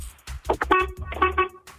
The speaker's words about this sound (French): Tu penses que c'est vrai, tu klaxonnes une fois. Tu penses que c'est faux, tu klaxonnes deux fois.